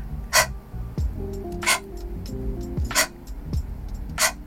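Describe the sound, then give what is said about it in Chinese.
A person imitates a dog panting as a vocal breathing exercise, with four slow, evenly spaced breathy huffs, each a short burst of hissing air, over a faint low tonal hum. Nobody speaks. “比如说，我比较喜欢的一个练习气息的方式就是狗喘气。”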